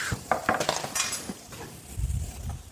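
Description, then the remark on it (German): Clattering clinks as two small plates and some cutlery are taken out in a kitchen for serving roast beef. A quick run of sharp metallic and ceramic knocks is followed by a softer low rumble of handling. “Magst du das Brett, Brett auf dem wir anrichten, Ne, einfach hier herstellen mhm. und uns vielleicht zwei Teller holen. Ja. Und ein bisschen Besteck.”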